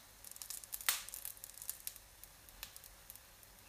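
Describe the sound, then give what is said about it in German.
Pancake batter sizzling and bubbling in very hot oil in a frying pan, a steady scatter of small crackles and pops with one sharper burst early on, fairly quiet, with no talking. “Der blubbert.”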